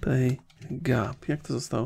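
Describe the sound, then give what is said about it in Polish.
Quick computer keyboard clicks patter along beneath a man speaking, as he types a phrase into Google Translate to translate from English to Polish; the light tapping is most noticeable in brief pauses between his words. “Dobra, wpiszmy sobie z języka angielskiego na polski.”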